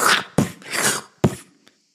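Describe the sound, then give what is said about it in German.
A voice mimics the sound of a heart ultrasound with breathy whooshing swells punctuated by two sharp thumping bursts, a rough pulsing rhythm, moderately loud, with no words spoken. “Habt ihr schon mal einen Herzultraschall gemacht? Hört sich so an.”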